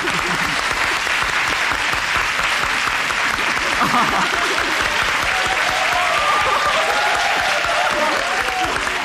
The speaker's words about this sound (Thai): โอ้ เสียงปรบมือไม่หยุด